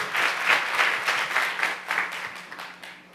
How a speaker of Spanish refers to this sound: Dele fuerte ese aplauso al Señor y colóquese en pie.